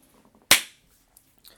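hand clap

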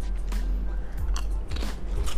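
crunching potato chips

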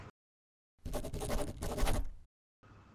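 pen scratching

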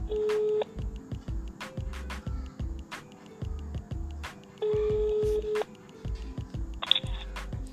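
telephone dialing tones

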